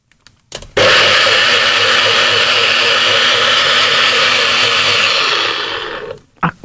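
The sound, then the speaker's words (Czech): A blender, plugged into a socket, makes a smoothie with salt, Tabasco and water: it starts abruptly and runs loud and steady for about five seconds, a harsh rattling whir with a low motor hum, then winds down and stops, with a couple of faint clicks afterward. “Zapojíme do zásuvky. Bacha dělá to hrozně nepříjemný eh, zvuk. Takový hodně rachotivý.”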